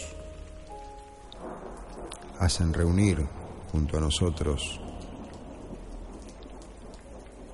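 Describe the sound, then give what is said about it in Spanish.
Steady rain pours throughout with a low rumble of thunder rolling underneath, while a man speaks briefly over the storm in the middle. “a resguardo de la tormenta y por supuesto para mantener la luz encendida.”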